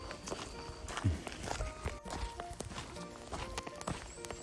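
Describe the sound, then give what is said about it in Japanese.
Footsteps crunch along a mountain hiking course in Japan, reached from Hiraoka Station via Hiraoka Shrine, at a steady walking pace, each step a soft, gritty thud over dirt and loose stones, with no voices. “特に、えどこかの山を登頂を目指すわけでもなく歩いているんですけれどもこのぐらぐら歩いてる感じもいいですね、”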